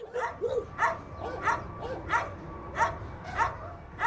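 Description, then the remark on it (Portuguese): Several dogs bark repeatedly in a steady rhythm of sharp, evenly spaced barks, with a few higher yips mixed in, all echoing at an animal shelter in Lisbon, Portugal, that houses about 400 dogs and 200 cats. “o União Zoófila fica em Lisboa e acolhe mais ou menos 200 gatos e 400 cães.”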